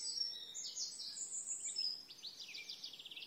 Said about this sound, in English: I think it's because maybe there isn't so much traffic on the roads at the moment, but I can really hear those beautiful birds singing every day.